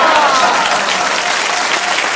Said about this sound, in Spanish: A quien brindo, eh, pido un fuerte, fuerte, fuerte, fuerte aplauso para su majestad que acaba de llegar. ¡Fuerte el aplauso!